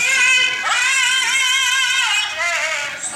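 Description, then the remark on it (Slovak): An 11-year-old boy sings a sustained tenor opera aria line, loud, with rich vibrato and gliding pitch, no talking alongside. “Toto, toto je hlas tvojho syna?”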